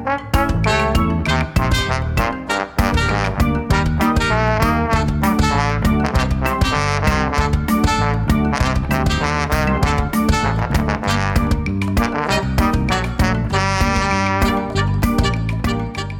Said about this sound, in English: I think this is a good time to take that music break, uh, listen to some more, come back, and we'll talk about the gameplay in The Secret of Monkey Island.